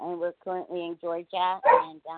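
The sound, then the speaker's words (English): A rescue dog from Costa Rica lets out a short, sharp bark or two in the background while a person keeps talking steadily over it. “that is one of our uh, rescue dogs from Costa Rica.”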